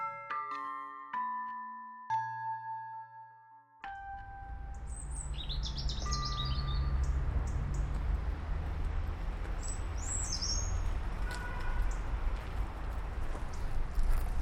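Small garden birds, including tits and redstarts, chirp and twitter in quick high bursts over a steady outdoor rumble, following a few ringing chime tones at the start.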